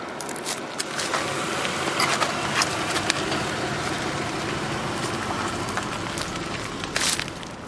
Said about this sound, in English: And we had heard from folklore, if you will, that they could be run over with a car and they don't die. And of course, we had to test it. Beetle versus car, take two.